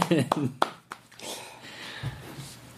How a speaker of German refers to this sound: Also ich, ich muss jetzt mal klatschen.